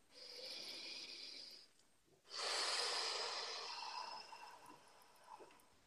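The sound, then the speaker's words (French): A slow, airy breath drawn in as part of a breathing exercise, a brief pause, then a longer and stronger exhale, with no talking. “Donc, on va faire quelques respirations et dire quelques affirmations. Alors, une respiration.”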